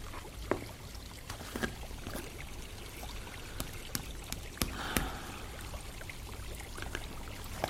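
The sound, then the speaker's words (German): A small stream flows past outside a window, a brook that runs beneath the town and comes up to the surface here. It burbles and trickles steadily, with occasional sharp splashes and drips popping out of the constant watery rush. Fairly quiet and even throughout, with no voices. “Vor dem Fenster fließt der Bach, der unterhalb der Stadt verläuft und hier endlich nach oben darf.”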